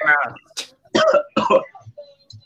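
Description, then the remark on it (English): A voice strains briefly, then two raspy coughs break out in quick succession, followed by a faint throat-clearing rasp and quiet breathy sounds. “I'm already coughing.”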